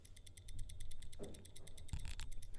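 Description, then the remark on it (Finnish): A stopwatch ticks rapidly and steadily, crisp sharp clicks at roughly ten per second, continuous over a low background hum with a couple of brief soft rustles. “Nyt se pitää hirveätä tikitystä.”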